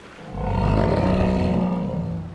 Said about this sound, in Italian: Ma quello è un orso! Il nostro orso bianco in pericolo!